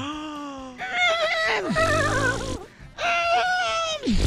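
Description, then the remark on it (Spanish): A voice imitates a horse drowning in a river, as part of a joke, with strained, warbling, gurgling whinnies and groans in several loud bursts, pitch wavering and sliding down at the ends, separated by short gasping pauses. “Estaba un caballo ahogándose.”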